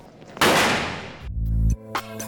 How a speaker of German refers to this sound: Ohne jede äußere Einwirkung explodierte eine Kugel, glücklicherweise nicht während eines Spiels. Sie lag in der Originalverpackung in einem Schrank. Zurück blieb ein Bild der Verwüstung.